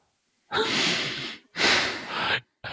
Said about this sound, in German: Oh, er atmet tief.